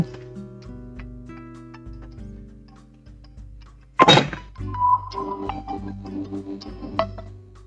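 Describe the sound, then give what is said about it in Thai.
A reminder alert signalling time for a LINE conference call plays as a melody of steady electronic tones stepping between pitches, broken midway by a sharp, loud thump, after which brighter chiming tones continue. No one speaks. “เป็นเสียงเตือนที่คุณพ่อเตือน ว่าถึงเวลาที่จะคุยทางทางอะไรคะทางไลน์คอนเฟรนซ์กับลูกๆสามคนเดี๋ยวต้องเร่งให้เสร็จแล้วก็จะได้ไปคุยพร้อมกันกับลูกนะคะ”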